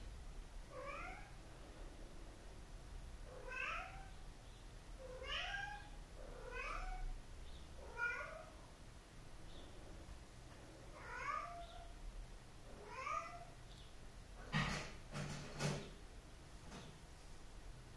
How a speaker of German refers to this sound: Ja, da ist wieder Mieze. Das ist Blackie. So mauzt Blackie.